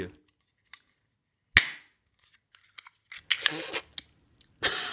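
A loud metallic crack pops first, followed by a longer scraping, crunching tear of thin metal, then another sharp burst as the whole lid is ripped off a can of Behemoth Lid Ripper Hazy IPA, leaving the can with no lid.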